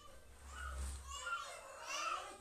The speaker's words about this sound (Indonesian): Tapi banyak suara tahu nggak sih? Aduh, mana itu suara orang kan aku lagi.